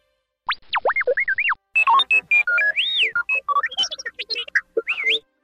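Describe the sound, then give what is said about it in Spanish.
A lively burst of electronic robot chatter in the style of the droid R2-D2, made partly from electronic sounds, whistles, tubes and a synthesizer-distorted voice: rapid warbling whistles, swooping pitch bends and quick chirpy beeps tumbling over one another for several seconds, with no voices. “Archurichu usa la mitad, bueno, parte de sonidos electrónicos, usa silbatos, tubos y su propia voz deformada por sintetizador.”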